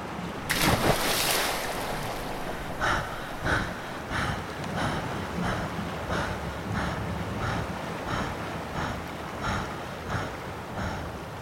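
Sea waves wash and churn steadily, opening with a loud surge of surf, then rolling on with repeated splashes and a constant broad hiss, with no voices.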